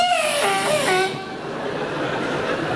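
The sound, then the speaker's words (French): A voice mimics the screeching tires of a car hugging the concrete curb at a motorway toll ticket machine: a loud, high, wavering squeal that slides downward for about a second, then fades into a softer, breathy hiss. “T'entends les pneus qui hurlent.”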